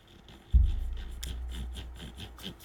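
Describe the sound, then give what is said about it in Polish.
A stepped potentiometer knob on a remote control is turned through small detents, giving a steady run of soft, rapid ticks over a low rumbling handling noise that starts abruptly and continues to the end. “też to jest taki potencjometr z takimi lekkimi skokami.”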